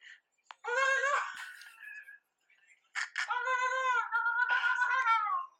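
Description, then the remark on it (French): A person imitates a rooster crowing twice, a strained, high-pitched vocal cry rising and sustained for about two seconds each time, with a short pause between, fairly loud. “attendez, on a l'imitation du coq qui arrive.”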